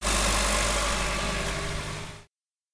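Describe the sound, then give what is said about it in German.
Fast cars roar past, a loud, steady rush of engine noise and rumble that holds for about two seconds before cutting off abruptly. No voices. “Sogar die allerschnellsten Autos überholten sie.”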